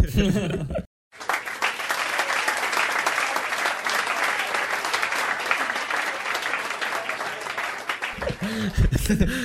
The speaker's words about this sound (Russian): Вот, здесь я хотел бы услышать аплодисменты.